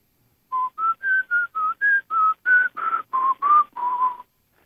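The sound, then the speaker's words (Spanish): A German ex-combatant whistles a slow, mournful film theme melody: about a dozen clear, sustained notes in a steady rhythm, alone with no talking. “el excombatiente alemán chiflaba la música del Padrino”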